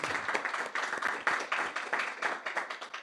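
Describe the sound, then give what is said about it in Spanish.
An audience claps loudly to the Lord, a dense, steady wash of many hands with a rapid, slightly rhythmic pulse that holds at a fairly even loudness throughout. “Vamos a dar fuertes palmas al Señor.”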